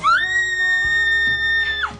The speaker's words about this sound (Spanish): Ay, Dios mío. Todas las mujeres gritamos igual.